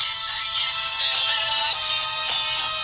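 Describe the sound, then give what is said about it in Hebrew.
A song made for Channel 5 plays back through a small, tinny speaker, thin in the bass and steady in volume for the whole stretch, with no one talking over it. “אה, את השיר שעשינו, שעשיתי לערוץ 5. שומעים את זה, כן, נכון?”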